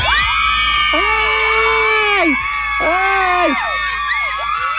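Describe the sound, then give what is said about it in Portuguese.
A dense crowd of female fans screams hysterically at a concert of a Portuguese boy band, many high-pitched shrieks overlapping in a loud, continuous wall of sound with wavering, rising and falling cries throughout. “Era sempre assim que apareciam os excessos. Elas começavam a gritar e nunca mais paravam, e os concertos tinham sempre imensos peluches e lingerie atirada para o palco.”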